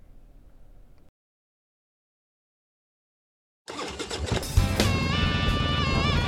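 A motorcycle engine fires up after a brief silence, roaring loud, then revs higher and holds a steady, throaty growl to the end.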